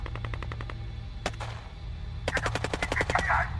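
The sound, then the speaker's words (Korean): Gunfire in a firefight breaking out on a mountain path near a military guard post: a rapid burst of automatic shots, a lone sharp crack, then another fast, loud volley of about ten shots over a steady low rumble. “부대에선 그냥 그렇게 알고 GP 입구 철문에서 교대 근무자와 기다리고 있었는데 그때 갑자기 산길 쪽에서 교전이 벌어져서 아수라장이 됐습니다.”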